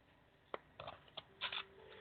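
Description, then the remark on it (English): A deck of oracle cards being shuffled, with a series of quick, crisp riffling bursts at an uneven rhythm. It's fairly quiet, and no one speaks. “Spirit's telling me to shuffle really good on this one, so I have to trust Spirit on that one.”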